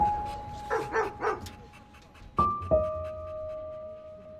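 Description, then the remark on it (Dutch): A shelter dog being trained gives a quick series of three barks, followed by two sharp, louder sounds that ring out briefly, with a steady faint tone humming underneath the whole time. “Ze trainen asielhonden, zodat ze weer een nieuw huisje krijgen.”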